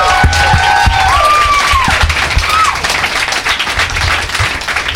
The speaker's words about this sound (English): All right, you guys. Uh, thank you. Let's have another round of applause for my guests. Thank you.